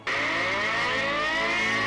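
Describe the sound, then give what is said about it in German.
A loud alarm siren, a submitted proposal for alerting fire brigade crews, starts abruptly and holds a steady, piercing tone with slowly gliding harmonics, sustained without a break and with no voices. “wir können alle auf werbefinanzierte Alarmsirenen dankend verzichten”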